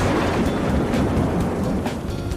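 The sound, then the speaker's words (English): A deep, continuous rumble of thunder rolls steadily with a dense wash of storm noise, loud, with no voices present. “eat canned food, and sleep on muddy grounds in a tent on an air mattress in the midst of severe thunderstorms”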